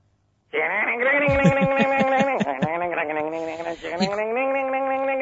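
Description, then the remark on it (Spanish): A voice imitates a rock-and-roll guitar chord riff played with one finger pressing several strings at once, singing a buzzy, sustained twangy tone with a few quick rhythmic strums early on, loud, for about five seconds. “Yo lo que quería escuchar era él haciendo e-, esa forma que tiene de tocar el acorde con el dedo un poco como morcilla tocando varias cuerdas a la vez.”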